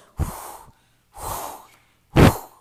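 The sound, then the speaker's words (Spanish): A voice imitates a wolf huffing and blowing: three forceful, breathy blows, each about half a second long with short pauses between, the last one the loudest. “Y luego sopló y sopló.”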